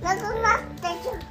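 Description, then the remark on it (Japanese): A young child, the speaker's daughter, chatters in a high, lively voice for a moment in the background behind the speaker, while an adult's voice makes a brief hesitant sound over it. “えっ、ー、と娘が後ろで喋ってますけど、まあ、どこまでちゃんと聞こえてたかわかんないですが”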